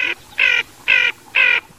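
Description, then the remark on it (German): A ferruginous duck calls in a steady series of four harsh, nasal croaks, evenly spaced about half a second apart, fairly loud with no other sounds. “Der Vogel der Woche, die Moorente.”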